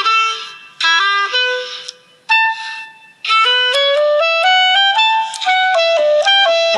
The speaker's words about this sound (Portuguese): Esse é o som do clarinete.